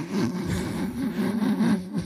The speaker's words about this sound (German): Ich staubsauge, ja.